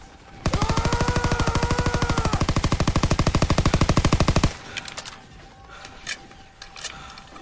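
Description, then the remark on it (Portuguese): A loud machine gun fires a long, rapid burst of evenly spaced shots for about four seconds, with a yelling voice over the first half. Quieter clicks and rustles follow once it stops. “E ele entra tipo, meio que gritando e atirando com a metralhadora.”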